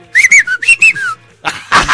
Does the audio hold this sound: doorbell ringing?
no